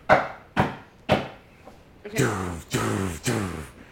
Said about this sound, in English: On the room outside, actually. Because remember, you guys came into a side room. Right. So there's a knock on the room, the other chamber.